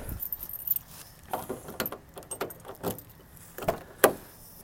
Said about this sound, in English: you can hear me opening the door and putting my bags in here.